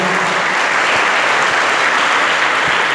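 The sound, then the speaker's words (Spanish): A church audience applauds the Lord during an evening service, a dense, continuous wash of many hands clapping at even loudness throughout, with no voices standing out above it. “¿Por qué no da una aplauso al Señor esta noche, por favor, iglesia?”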